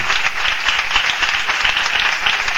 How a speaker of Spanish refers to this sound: El aplauso de hoy. Aquí viene. Muchas gracias de verdad por poner el nombre de nuestra guata en alto. El aplauso de hoy para Jairo Bustamante.